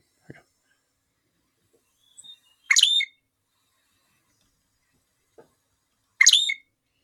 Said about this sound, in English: So I'm going to play some of the songs of of the loggerhead shrike, and then a couple of their calls. So here you go.